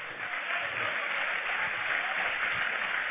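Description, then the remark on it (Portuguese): Steady audience applause fills the whole stretch, a dense crackle of many hands clapping at once, fairly loud and unbroken, with no voices standing out above it. “Pode aplaudir a ele.”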